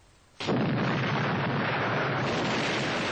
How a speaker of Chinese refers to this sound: 在第二天早上五点钟的时候，炸弹的炮响越来越强烈。